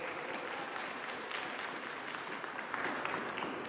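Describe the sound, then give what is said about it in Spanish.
A crowd applauds steadily for the Inti Raimi, the summer solstice festival of Quito, a dense wash of many hands clapping at an even level for a few seconds with a slight swell near the end, no voices standing out. “Pero decía entonces que un aplauso para el Inti Raimi, por favor, el solsticio de verano.”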